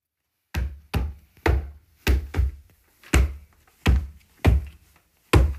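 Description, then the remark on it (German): Heavy, booming stomps land one after another, about nine in all, deep and thudding with a slightly uneven rhythm: a giantess stamping ever more wildly, jumping from one leg to the other, trying to crush a small spider. No voices. “Immer wilder stampfte die Riese.”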